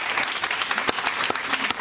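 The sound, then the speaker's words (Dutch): Steady audience applause for the guests at the close of a broadcast programme, a dense wash of many hands clapping at an even, fairly loud level, with a few sharper individual claps standing out throughout. “Ik ga eerst een applaus vragen voor mijn gasten.”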